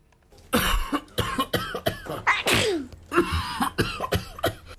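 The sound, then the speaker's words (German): A person coughs repeatedly and harshly, a series of loud bursts in an irregular rhythm with brief gaps between them and no talking. “Wie man die Weihnachtszeit trotz Husten und Halsweh gut übersteht”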